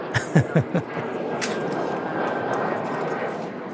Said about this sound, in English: And it was a Saturday morning, people walking their dogs and hanging out and the only noise really was the planes flying overhead to LAX.